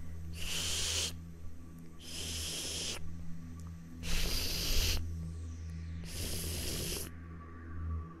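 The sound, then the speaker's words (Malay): Hair dragging across the floor: four slow, evenly spaced rasping swishes, each about a second long, over a steady low drone. No one speaks. “Sebelum kedatangan langsung ni Dia ada bunyi tau Bunyi tu ialah bunyi rambutnya yang Mengheret ke lantai”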